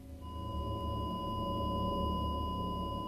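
A heart monitor's flatline tone as a patient dies: one unbroken, steady high-pitched beep holding level for the full three seconds over a low, muffled rumble, with no pulses or breaks and no voices.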